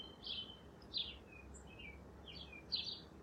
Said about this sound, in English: Some sounds, like the sounds of the birds, are beautiful.